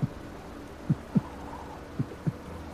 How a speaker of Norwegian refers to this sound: liksom hjertebanklyd. Mm. Og så hører du det også.